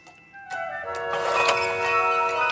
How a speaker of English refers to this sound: This clock is really special to me. My daughter Tiffany gave it to me, and I think it's very cute.